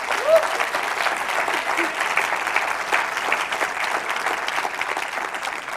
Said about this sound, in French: La réalité, la quasi-totalité des gens qui se sont engagés ont respecté leur engagement. Ça, je pense ça mérite un même applaudissement.